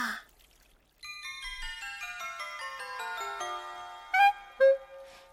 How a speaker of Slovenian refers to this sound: Kaj dela ta zvončka? Zvončka cingljata, cing cong, cing cong. Zvončka zvonita, ding dong, ding dong.